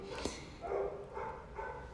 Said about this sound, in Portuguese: Ó a cachorradinha aí. Ó, gente. Acho que vai chegar um mascote novo aqui, hein? Minha doguita. Vamos ver.